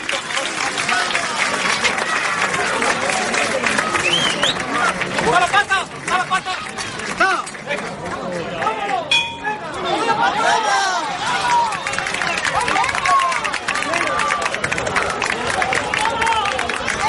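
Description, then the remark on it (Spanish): A large crowd roars and cheers continuously, with many overlapping voices, shouts and scattered clapping, as a procession carrying the Soledad float runs up the Cuesta de San Millán street in the evening, a dense throng of people moving together outdoors. “es este sonido exactamente, Juan José, que estamos escuchando, la subida de la soledad”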